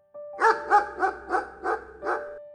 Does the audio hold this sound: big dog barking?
yes